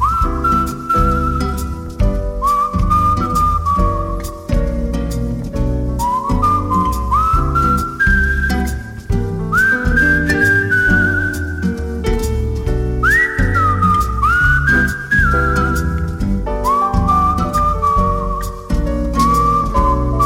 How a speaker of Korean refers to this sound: 자 이번엔 추억의 팝 중에서 두 곡을 골라봤는데요. 시작부터 흘러나오는 휘파람 소리가 제대로 가을가을합니다.